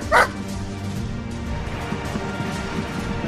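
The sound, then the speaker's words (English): A single sharp, high dog bark rings out right at the start, loud, followed by a steady low background hum with no further barking. “Probably the worst piece of content that reminds me is we we recreated Liverpool's run to the Champions League with dogs.”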